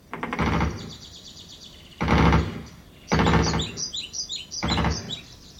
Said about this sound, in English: That's the sound of Full Spectrum Command, a cutting edge battle simulator developed by Hollywood for the U.S. Army. As you can see, there are a lot of birds in the contemporary battlefield.